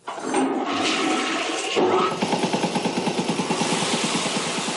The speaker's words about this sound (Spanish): Bueno, él quería ver si la taza del baño corría en la misma dirección que Springfield.